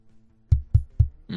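Three dull, bass-heavy thumps at a steady, quick pace as a microphone is tapped to check it is the right one, each a short knock with a boomy low end, followed by the start of a voice.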